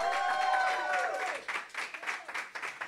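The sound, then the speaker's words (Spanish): An audience bursts into loud, sustained applause, many hands clapping together, with a swell of raised voices at the start that fades as the clapping carries on. “Dale un aplauso fuerte. Vamos, dale un grito de victoria.”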